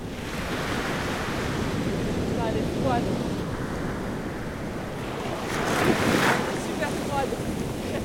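Continuous roar of ocean surf washing onto a shore, with a louder wave surging and breaking around the middle, all under steady wind buffeting the microphone.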